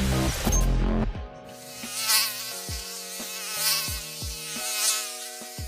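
A mosquito buzzes in a thin, steady, high-pitched whine that swells and fades slightly as it hovers, following a brief burst of rustling noise at the start.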